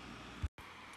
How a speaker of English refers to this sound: Also, I really apologize if you can hear my computer like humming in the background. I don't know why it's getting so hot, but it's trying to cool itself down. So, hopefully, that doesn't bother you too much.